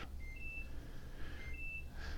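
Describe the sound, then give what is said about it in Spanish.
Thin electronic alarm beeps sound in two short bursts, each a pair of high tones stepping up in pitch, fairly faint over a steady low background hum. “Creo que la alarma suena.”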